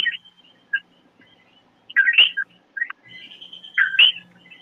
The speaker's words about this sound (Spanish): No está ahí porque estoy escuchando los coquillos.